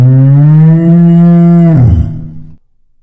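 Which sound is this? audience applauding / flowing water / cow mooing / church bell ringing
cow mooing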